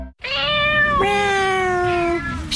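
A single long, drawn-out cat meow, loud, with a strong harmonic tone that bends and slides down in pitch over about two seconds, heard alone without talking.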